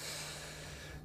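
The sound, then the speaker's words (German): A single sneeze from someone with hay fever, a breathy, hissing burst of noise that lasts about a second and fades out at the end, with no talking over it. “Nee, nee, nee, bei Bullshit musst du einfach niesen.”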